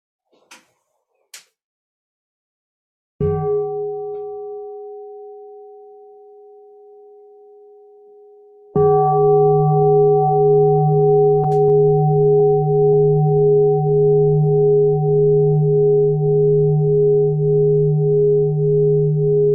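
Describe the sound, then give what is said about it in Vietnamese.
A couple of faint taps, then a mindfulness bell is invited by a nun, struck softly and humming as it fades, followed by a full, loud strike whose deep, steady tone rings on without dying away, sounded for everyone to relax. “xin xin cô thỉnh một tiếng chuông để mọi người buông thư”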